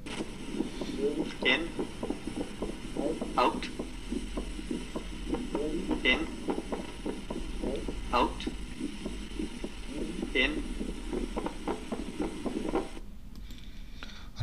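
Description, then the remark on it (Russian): Heartbeat through a stethoscope in complete left bundle branch block, with a steady run of muffled beats whose second heart sound is split into a close double thud, set against constant low rumble and hiss before cutting off near the end. “Расщепление второго сердечного тона при блокаде левой ножки пучка ГИСа. Полная блокада.”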